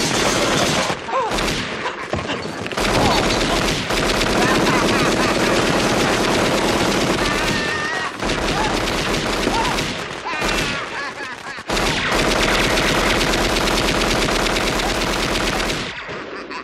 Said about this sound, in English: and then, of course, we get the ultimate payoff when he uses the same thing on Marv when he sort of snoops in on the back porch and uh, he uses firecrackers to great effect.